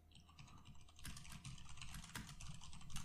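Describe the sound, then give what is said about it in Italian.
Rapid, uneven clacking of keys on a computer keyboard as someone types a chat message, steady for a few seconds, with a low hum underneath and no one speaking. “Aspetta, mo io scrivo in chat.”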